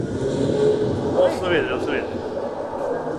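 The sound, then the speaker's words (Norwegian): Steady street traffic rumble from a recording of Brugata street played as a sound installation, with cars passing and engines humming, a dense urban wash of road noise, while people talk briefly over it. “Det er lyden av Brugata.”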